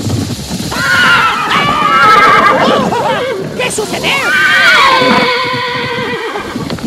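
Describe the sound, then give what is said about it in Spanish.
A horse neighs loudly and repeatedly, its shrill whinnies rising and falling over several seconds, with a person speaking briefly underneath and faint hoof sounds in the background. “¿Qué fue lo que a mi caballo?”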